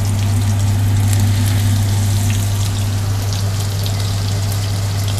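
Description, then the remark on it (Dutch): Steady running water from a tap as hands are washed while eggs are cooking, a continuous hissing, splashing rush with a low hum beneath it. It stays even for about five seconds, with no voices. “Ik wil hem eigenlijk de bewegen, maar ik ben eh, handen aan het wassen, dus dat gaat niet.”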